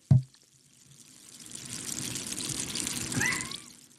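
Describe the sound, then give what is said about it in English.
A short knock, then fizzy soda water carbonated with a SodaStream being poured, a steady hissing, bubbling stream that swells gradually over a few seconds. No one speaks. “I should have poured it in front of the microphone.”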